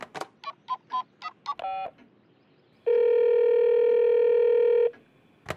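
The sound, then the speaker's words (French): A quick run of about seven telephone keypad beeps, then a pause and a single loud, steady two-second calling tone, clear with no voices, as someone phones the World Meteorological Organization in Switzerland. “Pour en savoir plus, je téléphone là-bas.”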